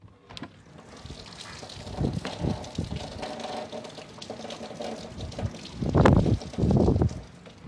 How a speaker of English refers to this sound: and it's really windy that my window itself is shaking. So if you can hear that, then yes.